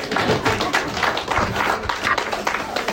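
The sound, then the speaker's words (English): An audience at Ascent Church claps together in a steady, dense patter of many hands, holding an even loudness for the whole few seconds with no break or spoken words. “Hey, clap for that. Somebody started back there.”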